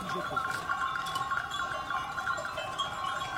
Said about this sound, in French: Lorsque je suis avec mes moutons, là-haut dans la montagne, je peux pas écouter British Connection.